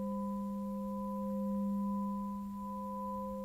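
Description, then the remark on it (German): A clear, pure metallic ringing tone from a smith's newly made, struck steel S-shaped bow holds steady for several seconds, bright and sustained with a few clean overtones, heard alone without any voices. “Der helle, reine Klang bestätigt ihm, dass sein Bogen keinen Riss hat.”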